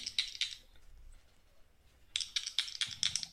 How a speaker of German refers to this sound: Und dann würfel gleich nochmal.